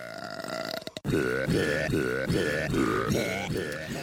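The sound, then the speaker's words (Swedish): Loud burps come in a steady rhythm, roughly two per second, drawn out and pitched as if belching a tune, after a short tonal sound and a brief gap. “Och det var kanske lite gaser och så i farten där eftersom man lät på det där viset.”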